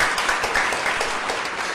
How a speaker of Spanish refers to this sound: Bienvenida a la Un Un aplauso.